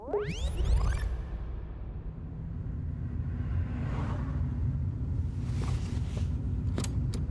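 Steady low engine rumble and road noise from inside a moving car, driven at 8:40 in the morning toward former social housing blocks in the southern part of town, with a brief rising whoosh at the start and faint clicks and rattles over the continuous drone.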